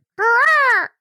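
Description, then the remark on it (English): A person vocally imitates a peacock's two-tone scream: one loud, piercing, nasal wail that rises then falls in pitch, lasting under a second, with nothing else around it. “if you haven't heard a peacock call listener it's a it's like a terrifying kind of weird ah, two yeah like yeah.”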